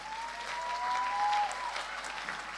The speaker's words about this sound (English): Can we give the mothers in the house a hand clap offering?